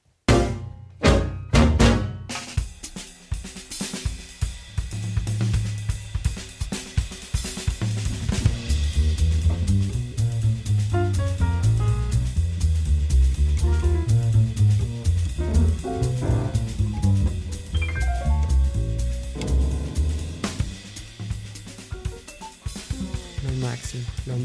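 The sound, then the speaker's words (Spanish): An instrumental jazz passage from a film soundtrack plays on its own, opening with a few sharp percussive hits before settling into a steady walking bass line under sustained melodic notes at a moderate, even level. “Y por eso se escucha este tipo de jazz. Escuchemos brevemente ahí un poquito de lo que es este tema.”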